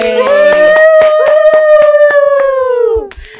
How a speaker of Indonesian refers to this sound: Tepuk tangan